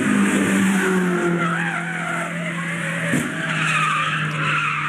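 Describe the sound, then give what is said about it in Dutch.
A car skids on the Nürburgring race track, its tires squealing in long wavering tones over a steady engine drone, with a short sharp knock about two-thirds through that could be a crash. No voices. “Met je eigen auto de Nürburgring, de groene hel op.”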